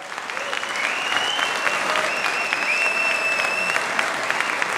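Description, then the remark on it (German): Steady audience applause, a dense wash of many hands clapping at an even level throughout, with a few faint whistle-like tones above it. “Ein verdienter, ein verdienter Applaus.”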